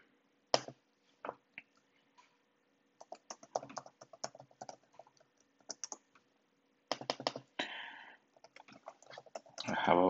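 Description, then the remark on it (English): Typing a password on a computer keyboard: quick bursts of crisp key clicks at an irregular pace, broken by short pauses, with a busier flurry of keystrokes toward the end. “always have the worry that if I'm like typing a certain password.”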